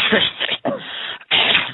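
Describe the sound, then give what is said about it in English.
Three forceful, deep coughs from the belly in quick succession, each a loud, rough burst with a short gap between, with no talking. “And the way you do it is you take a deep breath in, think about coughing down in your belly, and cough those things out, not from the throat.”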